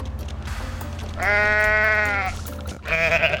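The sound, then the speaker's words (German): A goat in a video game bleats loudly in a long, wavering cry, then starts a second, shorter bleat that is cut off at the end, over a steady low rumble of background noise; the bleat is triggered with the controller's left shoulder button. “Okay, ich kann mit der linken Schultertaste kann ich hier ähm, wunderschöne Sounds noch bei mir geben.”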